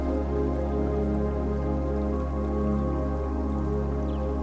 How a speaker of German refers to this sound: Das leise Plätschern des Flusses dringt dabei beruhigend an dein Ohr.